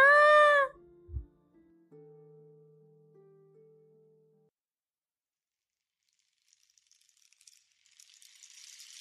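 A loud, brief rooster crow opens, clear, then fades into a low steady hum and near silence, with faint rustling noise near the end.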